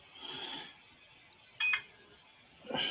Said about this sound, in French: Désolé, j'ai mon téléphone que je n'ai pas mis en mode silence.